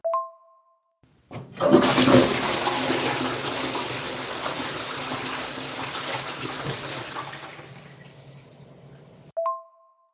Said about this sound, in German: bei der langen Pause habe ich eigentlich darauf gewartet, dass gleich wieder die Klospülung kommt.